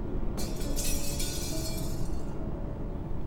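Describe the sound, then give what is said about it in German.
A window's glass shatters at night with a sudden bright crash, then scattered tinkling fragments fade out over about two seconds, over a steady low rumble that carries on afterward. No one speaks. “Das klang doch wie ein Fenster, das kaputt gegangen ist, oder?”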